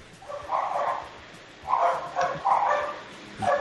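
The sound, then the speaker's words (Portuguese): Several dogs bark in repeated bursts over a phone call, moderately loud, with short pauses between volleys over a faint background hiss. “Só, só, só, ficou os cachorros”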